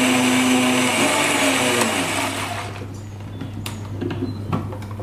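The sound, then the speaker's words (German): A kitchen blender briefly mixes ingredients including 15 grams of crumbled yeast, whirring loudly and steadily for about three seconds, then winds down, leaving a low hum with scattered small clatters and taps. “Ich packe das jetzt mal Mixer. Ja, der ist ja so cool, der macht das ja alles. Und mixe das einmal ganz kurz auf.”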